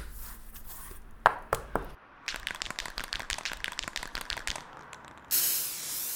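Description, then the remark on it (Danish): A few sharp clicks, then a spray can rattles in quick repeated shakes before a steady hiss takes over for the final second. The paint is sprayed onto a huge white house wall on Grenovej, lit by spotlights, to write initials. “Og jeg sprayer bare løs ud på, øh, på den her kæmpe store hvide væg, som er belyst med spots, øh, som ligger ud til Grenovej.”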